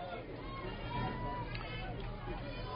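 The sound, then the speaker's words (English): Steady murmur of a big outdoor crowd at a high school softball quarterfinal game in Battle Creek, many voices chattering at once in a continuous, even hubbub with no single voice standing out. “Outfield playing straight up here big crowd down here in Battle Creek for this quarterfinal contest.”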